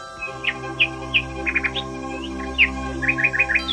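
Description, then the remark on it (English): Bright bird chirps ring out, a series of quick tweets and short trills repeating over a steady low hum in the background. “After a few hours, the tailor regained consciousness and heard two birds talk to him.”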